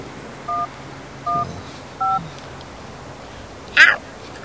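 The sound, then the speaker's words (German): Three short mobile phone keypad tones beep at a steady, unhurried pace as someone dials the fire brigade, each a clean dual-pitched blip, followed by a brief harsher squawk near the end over a quiet background. “Ich musste die Feuerwehr anrufen.”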